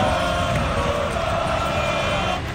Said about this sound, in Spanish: Acaba encarándose con el seguidor que le quita la bandera, mientras el resto le siguen gritando.